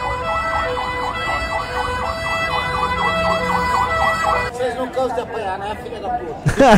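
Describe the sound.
An ambulance siren wails in steady, rising-and-falling cycles over a noisy crowd as its passage is being obstructed, then shifts to a faster, choppier warble near the end, with loud chatter and voices mixed underneath.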